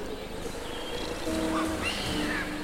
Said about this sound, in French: Vous entendez le bruit des oiseaux exotiques derrière moi Oui, vous entendez.